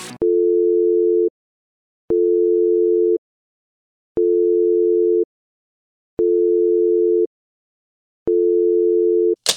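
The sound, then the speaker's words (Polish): A telephone ringback tone repeats five times in steady one-second beeps separated by short silences, clear and fairly loud, with no one picking up and no voices present. “No dzwoni, dzwoni i nie odbierasz.”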